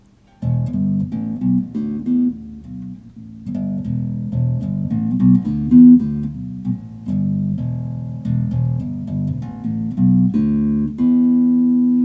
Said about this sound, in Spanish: Bueno, voy a tocar un toque, un poquitito el bajo, cómo suena la escala pentatónica, y a ver si si les resuena algo, a ver.